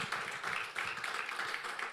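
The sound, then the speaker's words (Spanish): Sustained applause from a crowd in praise of the Lord, a dense, steady wash of many hands clapping together with no pauses, moderately loud. “Fuerte ese aplauso de alabanza al Señor.”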